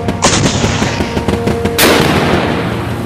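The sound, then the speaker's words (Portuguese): Heavy anti-aircraft cannon fire against attacking Allied aircraft booms over a dense, rumbling battle din as waves of planes attack a dam wall, with two especially sharp, loud blasts standing out amid continuous rapid gunfire. No one speaks. “As aeronaves aliadas avançaram para o ataque e logo as ondas de ataque contra a parede da represa se viram sob o fogo dos canhões antiaéreos.”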